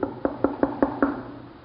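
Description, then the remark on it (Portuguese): Six quick, evenly spaced knocks on a wooden door, moderately loud, followed by a brief fading resonance with no voices. “São esses maltrapilhos que vão bater na porta da igreja.”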